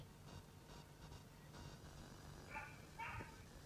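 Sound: puppy barking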